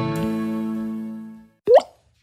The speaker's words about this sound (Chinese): 这是落泪的声音，也是心淌血的声音，也是尿失禁的声音。